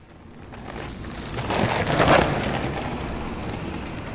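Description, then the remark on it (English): A skateboard used as everyday transport rolls steadily over pavement, a continuous gritty rumble that swells louder near the middle as it passes, then eases off slightly. No voices. “his skateboard, Frankie's preferred mode of transit”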